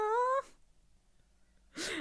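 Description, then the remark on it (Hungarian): A baby lying on its mother lets out a brief whimpering moan, falls quiet, then gives a breathy snuffle near the end. “egy ilyen kis tökéletes kis kreatúra most így itt tud szuszogni rajtam”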